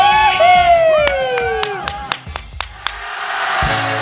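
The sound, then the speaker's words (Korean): Visiting fans gathered in front of a radio studio shout and cheer together, a rising whoop sliding down in pitch over a dense wash of voices, with scattered claps and sharp hand slaps punctuating the loud, excited din. “자, 우리 지금 같은 스튜디오 앞에 놀러 오신 버둥이 분들 다 같이 한번 외쳐볼게요.”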